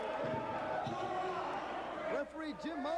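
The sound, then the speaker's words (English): A few dull metallic clattering thuds as folding chairs are thrown, some by wrestler Dory Funk, and land, ringing out amid a loud, roaring crowd at a wrestling event, with people talking and shouting over the din. “oh, chairs are just flying up at them.”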